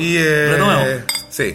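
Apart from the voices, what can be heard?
glasses clinking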